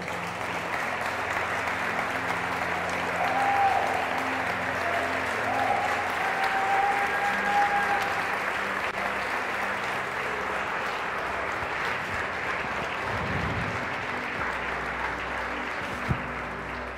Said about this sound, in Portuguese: Em nome de Jesus, aplauda o Senhor, igreja.